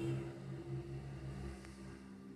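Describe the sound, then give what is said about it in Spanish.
Motorcycles and buses rumble past in a continuous low engine drone, their hum swelling and easing slightly as traffic moves by, with no voices. “Escucharon todas esas motos, todos esos bondi que justo pasaron cuando yo dije, bueno, después de horas y horas de silencio, yo dije, bueno, voy a grabar y pasó todo eso.”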